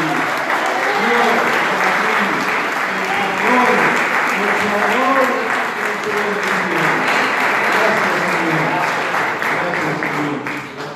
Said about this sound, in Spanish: Gloria al Señor. Le damos un gran aplauso una vez más a Dios.